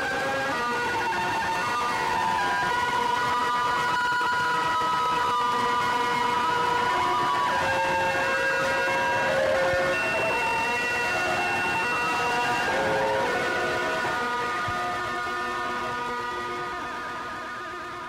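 A dense wall of harsh, screeching electronic guitar feedback, with layered whining tones sliding and wavering over a constant noisy roar, loud and unbroken throughout with no voices.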